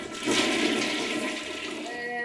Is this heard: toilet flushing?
yes